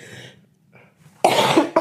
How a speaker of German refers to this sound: Das hört ihr an meinem Husten